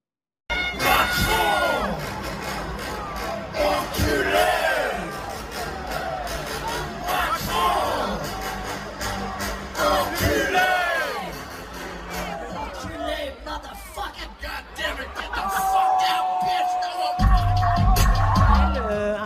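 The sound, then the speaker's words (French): At an electronic music festival in President Macron's own city, a large crowd and the artist on stage jeer the president over music: voices rising in waves of loud, overlapping yells and whistles, with a sustained tone near the end as the noise continues. “Écoutez juste la séquence et vous verrez que le président Macron, dans sa ville, dans sa propre ville, n'est pas ménagé par l'artiste qui est sur scène et par le public.”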